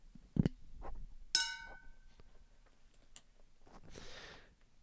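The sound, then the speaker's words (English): A hand bell rings once with a bright, high metallic clang that shimmers and fades within about half a second, preceded by a dull handling thump and followed by soft rustling. “Hang on, where's my where's my bell?”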